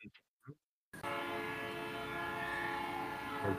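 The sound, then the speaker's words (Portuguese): A few brief, muffled sounds, then a train horn blasts loudly and steadily for nearly three seconds, a rich droning tone over rumbling noise that holds until the end. “o cara apertou pronto, o trem abusinou lá, mas estou pronto, velho.”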